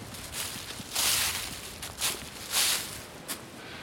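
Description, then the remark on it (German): Footsteps crunch through forest ground and leaves as someone walks uphill, several irregular scuffing steps close to the microphone, with soft rustling between them and no talking. “Ich lenke das Mikro mal auf meine Schritte, dass ihr mal hört, wie ich hier durchlatsche.”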